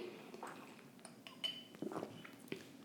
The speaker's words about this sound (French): Fait que mon Dieu, ma voix a, décidé de partir. Fait que je vais prendre juste une petite gorgée, puis on va continuer.